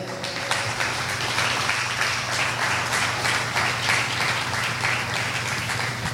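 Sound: audience applauding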